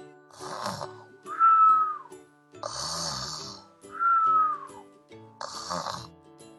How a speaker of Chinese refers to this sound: 不一会儿，小趣和车车听到了大奇打呼噜的声音。